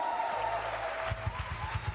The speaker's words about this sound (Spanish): Bienvenido al Ministerio de la Casa en su 17 aniversario. ¡Aplausos!